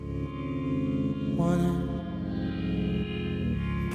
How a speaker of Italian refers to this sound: E sui quali viaggia questa voce con tantissimo effetto di riverbero butta lì delle parole. È difficilissimo da comprendere.